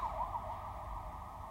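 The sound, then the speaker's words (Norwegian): An ambulance siren wails steadily over a low rumble of road or engine noise, its tone wavering slightly and sounding muffled, as if heard from inside or behind a vehicle, as the ambulance drives a patient through a long tunnel to the hospital in Stavanger. “Svein blir lagt i ambulansen og kjørt til sykehuset i Stavanger.”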